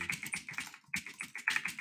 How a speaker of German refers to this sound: was machst du mit deiner Tastatur? Ich mach gar nichts. Ich höre die die ganze Zeit. Was ist denn das?